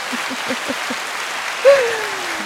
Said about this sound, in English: Uh, y'all hate my applause button. I know. My fans like, girl, will you find another button besides that applause button? no. no, ma'am. I like my applause button. It does what it does.